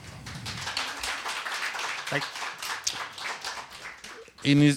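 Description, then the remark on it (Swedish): An audience applauds a newly arrived guest with a dense, steady wash of many hands clapping for several seconds, then a voice begins speaking as the clapping fades out. “han är värd en applåd.”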